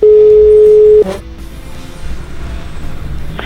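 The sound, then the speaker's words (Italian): A loud, steady telephone tone holds for about a second, then cuts to faint line hiss before the next tone begins at the very end, like a call ringing through to the mayor of Roccamena. “E allora noi ieri sera abbiamo preso e abbiamo chiamato il sindaco di Roccamena per farci raccontare questa storia.”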